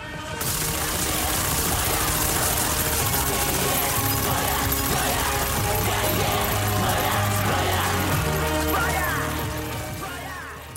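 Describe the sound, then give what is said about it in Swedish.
Automatic weapon fire crackles in rapid bursts through a dense, loud film soundtrack, with sustained musical tones and mechanical clatter underneath, continuing for about ten seconds without any talking. “Ja, det här hör man ju att det är någon slags film i alla fall och man hör ett automatvapen som går av.”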